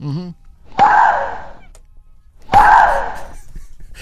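A tennis player lets out two loud, drawn-out grunting shrieks, each starting with a sharp racket strike on the ball, about two seconds apart.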